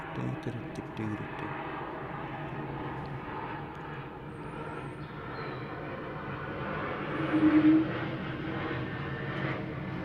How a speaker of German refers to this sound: Aber genau hier drüben. Eurowings. Flugzeug, Flugzeug, ja, ja, ja, Flugzeug.